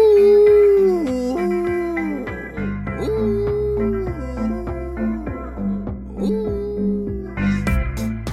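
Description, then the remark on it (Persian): A pet dog, hit by a balled-up sock that bounced off while being thrown toward a laundry basket, whimpers and howls in drawn-out, wavering cries that rise and dip, repeating several times over a steady rhythmic beat in the background. “منم مثلا عادتم اینه که جورابامو گوله میکنم پرت میکنم به سمت سبد لباس و قدرت خدا هیچ وقتم گوله جوراب وارد سبد نمیشه که هیچ یه وقتایی کمونه میکنه میخوره به سگم حالا بیاد دو ساعت از دل ایشون در بیار”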